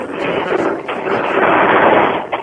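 A garage door opening: a steady, loud mechanical rumble and grinding whir that holds evenly for a couple of seconds, with no voices over it.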